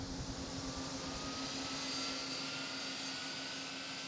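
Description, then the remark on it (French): A powerful supersonic wind tunnel of 60,000 horsepower, producing winds of nearly twice the speed of sound to study airflow, thrust and drag on aircraft, roars steadily with rushing airflow and a low mechanical hum, loud and continuous throughout with no talking. “un tunnel qui produit des vents d'une puissance de 60 000 chevaux, soit presque deux fois la vitesse du son.”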